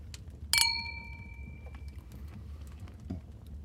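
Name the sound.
glasses clinking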